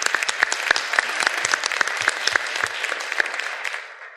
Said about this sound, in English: Can we give him a warm round of applause?